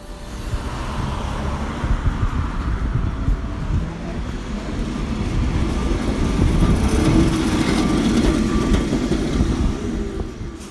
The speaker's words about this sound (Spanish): subirse a los tranvías es toda una tradición, sobre todo al número 28, el tranvía de madera y que es el único que se mantiene en toda la ciudad.